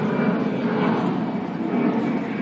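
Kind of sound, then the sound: vehicle, airplane flying overhead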